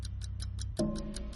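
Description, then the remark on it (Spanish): A steady, rapid clock ticking over a low droning bed, joined partway through by a sustained, tense musical tone, like a game-show countdown effect. No voices. “Es como la máquina de la verdad, ¿no? Como de concurso.”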